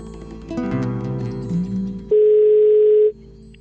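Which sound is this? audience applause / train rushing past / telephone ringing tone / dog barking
telephone ringing tone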